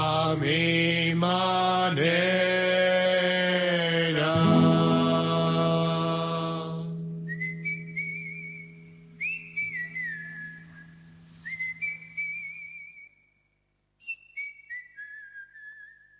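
A song's closing chord rings out and fades, then a man whistles a melodic tune alone in short, clear phrases separated by brief pauses.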